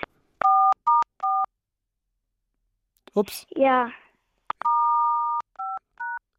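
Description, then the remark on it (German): Several dual-pitched telephone keypad tones beep in short bursts as someone presses the buttons during a phone call, one tone held longer, with a brief spoken interjection in the middle of the presses. “Jetzt hat irgendwer spielt da gerade an den Tasten rum.”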